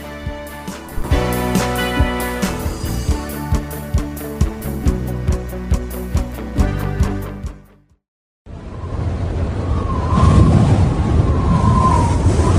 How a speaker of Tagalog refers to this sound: Naku, ang lakas na ng hangin. Paparating na ata talaga ang bagyo.